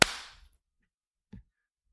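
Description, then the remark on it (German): A single sharp hand clap, made to sync a recording after a 3, 2, 1 count, rings out and fades over about half a second, followed by a softer, dull thump a moment later. No one speaks. “Äh, nee, warte, erst klatschen.”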